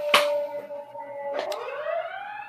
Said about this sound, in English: Sound of uh sound of ambulances.